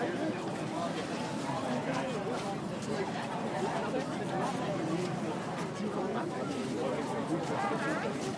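Steady outdoor crowd babble at an open-air art fair in Madison, Wisconsin, USA, on July 9, 2022, with many overlapping voices, no single speaker standing out, plus occasional footsteps and light clatter as people mill about.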